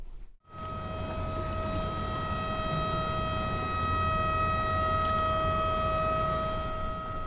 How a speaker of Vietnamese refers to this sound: Đúng 1 giờ 55 phút, tiếng còi xe báo hiệu vang lên, thông báo lễ tách đôi cầu sắp sửa bắt đầu.